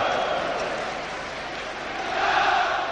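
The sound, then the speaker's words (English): A large stadium crowd of Rangers supporters cheers and applauds the Scottish Cup trophy presentation, as manager Walter Smith holds the trophy, in a dense, continuous roar that holds steady and then swells louder toward the end, with no clear individual voices. “Walter Smith with the trophy applauded by the Rangers supporters.”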